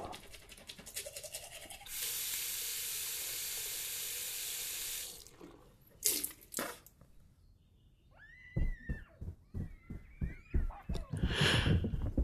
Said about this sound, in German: Ich sitze auf dem Badewannenrand, putze mir die Zähne und schüttle Traumfetzen wie welke Blütenblätter aus meinem Verstand. Zahnbürste in der Hand kippe ich in mich zurück, schließe die Augen und höre den Borsten zu.